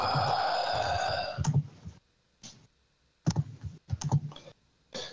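A series of sharp mouse or keyboard clicks arrives in short irregular bursts, fairly loud, after an opening stretch of steady tonal hum, with quiet gaps between the clicks.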